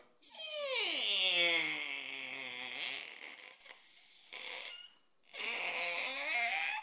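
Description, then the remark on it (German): A voice mimics a squeaky door swinging open, imitating the opening of the 18th door of an Advent calendar: a long drawn-out creak with sliding pitch, a brief pause, then a second squealing stretch, fairly loud. “Ich mache es jetzt mal auf, wieder mit einem Quietschen.”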